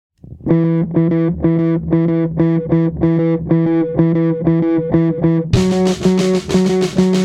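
A band plays loud, opening with a steady pulsing riff of distorted electric guitar chords before the full group crashes in with bright cymbals about five seconds in.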